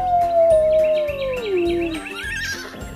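A wolf gives a single long howl that glides slowly downward in pitch for about two seconds, heard over a steady rhythmic background with some faint chirpy calls.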